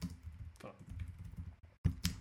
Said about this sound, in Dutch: Sorry, sorry voor de, stilte. Ik probeer dat hier uit te typen zodat ik het niet vergeet.